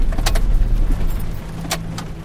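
A car pulls over onto the road shoulder as it is getting dark, its engine rumbling and easing off, with a few crunching, rattling bursts like tires rolling over gravel. No one speaks.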